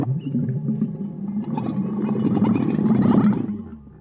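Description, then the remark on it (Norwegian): A lively camel's mating roar: a long, guttural, gurgling bellow that swells and bubbles for about four seconds before trailing off, loud with no talking. “I mellomtiden får dere nøye dere med det nest beste paringsbrølet til en yr kamel.”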